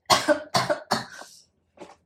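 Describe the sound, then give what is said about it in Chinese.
Three quick, harsh coughs from an itchy throat, the last trailing into a raspy breath, followed after a short pause by one softer, smaller cough. No talking. “怎么讲到狮子座的时候喉咙好痒哦。”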